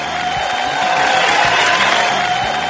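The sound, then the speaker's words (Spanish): A dense, steady roar of a crowd cheering and shouting, loud and continuous throughout, with a broad wash of many voices and no single speaker standing out. “Ah, pero bien, bien que gritan, ¿eh?”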